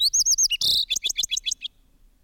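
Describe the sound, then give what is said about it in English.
A fox sparrow sings a short, rich song: a quick run of clear whistled notes, a brief buzzy burst, then a descending series of sweet chirps. It is fairly loud, with no one speaking. “In February, one may hear in the Smithsonian grounds the song of the fox sparrow.”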